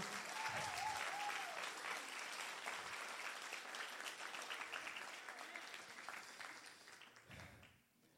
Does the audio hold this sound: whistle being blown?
no